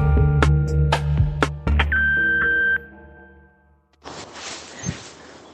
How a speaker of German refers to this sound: Da ist der Telefonbeantworter von Baschur. Wir sind gerade nicht da, aber ihr könnt uns eine Nachricht hinterlassen. Zehn Minuten habt ihr Zeit und reden könnt ihr nach dem Piepston